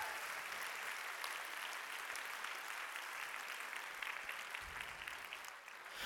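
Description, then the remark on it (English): A crowd applauds a man who has just done a great job, a steady, dense wash of many hands clapping at once that stays even and sustained for the whole stretch, with no voices standing out. “Give him a good hand.”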